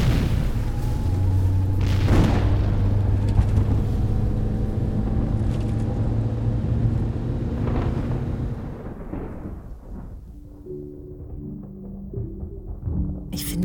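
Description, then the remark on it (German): Thunder from a storm outside rolls in a long, deep rumble with a few sharper cracks, slowly fading toward the end, leaving a low steady hum. No one speaks. “Das ist nur das Gewitter.”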